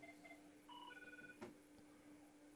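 Faint electronic telephone tones sound in short steady bursts at shifting pitches over a low hum, followed by a soft clunk and a sharp click as the phone is picked up.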